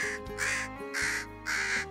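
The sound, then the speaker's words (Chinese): Three loud, harsh crow caws in steady succession, each a raspy, grating call of roughly a third of a second, with short gaps between them. “说着，乌鸦情不自禁的唱起歌来。”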